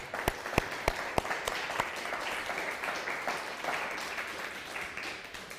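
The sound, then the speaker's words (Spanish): An audience in Mexico breaks into applause, opening with several sharp, distinct claps before settling into a steady, dense wash of clapping that holds at moderate loudness throughout. “Fuerte aplauso, mis hermanas.”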